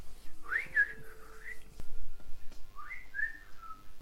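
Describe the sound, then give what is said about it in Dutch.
A person whistles a short melodic family tune in two phrases with a brief pause between them, clear, with no talking over it. “En ik vond het wel herkenbaar wat hij vertelde: dat hij zo'n eh, deuntje fluit. En dat iedereen dan weet: oh, dat is het familiedeuntje.”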